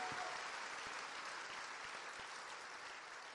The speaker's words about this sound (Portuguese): Nós te glorificamos em o um nome de Jesus. Aplauda esse nome.